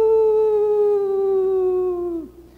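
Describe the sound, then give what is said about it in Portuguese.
A single long, sustained howl held on one steady pitch for about two seconds before breaking off, loud, sounding like a person's voice imitating a dog howling. “por que, que esse cachorro está uivando tanto?”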